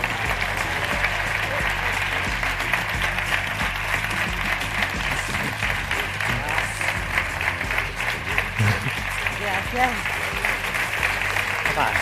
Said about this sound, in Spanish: Así que recibamos en este escenario a Ignacio del Moral, guionista, y a las estrellas de la serie, Carmen Climent, Pablo Rivero, Irene Visedo, Imanol Arias y Ana Duato. Un fuerte aplauso.